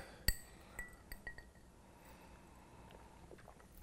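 glasses clinking together

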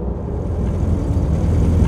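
delivery truck arriving

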